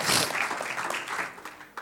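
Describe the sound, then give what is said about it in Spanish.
A crowd applauds with dense, steady clapping that starts loud and gradually eases off over a couple of seconds, no voices standing out. “Un aplauso al Señor.”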